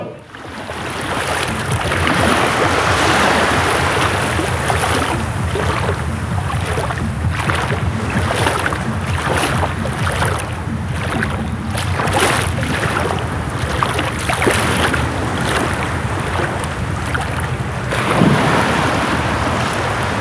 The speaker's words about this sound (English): followed by the sounds of the waves on Koh Rong Island.